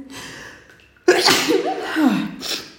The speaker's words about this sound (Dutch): Ik ga even niezen, een moment.